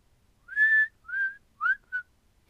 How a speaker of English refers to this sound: just going to be whistling, whistling from now on